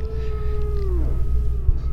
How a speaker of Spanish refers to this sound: y su familia escucharon aullar a un lobo, algo normal. Sí, la montaña, el monte, ¿no?